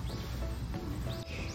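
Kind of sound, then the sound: bird, birds chirping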